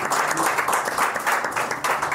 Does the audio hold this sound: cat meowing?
no